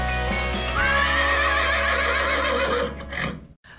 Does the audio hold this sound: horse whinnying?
yes